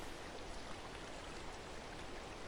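A steady, soft rush of water splashing gently over smooth stones and forming small eddies, at a small natural pond in a garden fed by a clear mountain spring. The sound is continuous and fairly quiet, with no voices.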